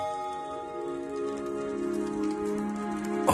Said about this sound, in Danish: det her, det er den mest solgte plade op til, Jap- øh, til jul i Japan. Det er det største julehit i Japan, det her.